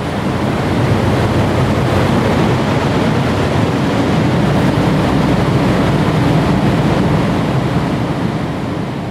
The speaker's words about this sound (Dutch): Ik stapte uit de auto en ik hoorde eigenlijk meteen het, het gonzende geluid eh, van nou ja, het, zijn ook hele grote ventilatoren. Dus ja, stel je je tafelventilator voor, maar dan veel groter en met veel meer eh, lawaai.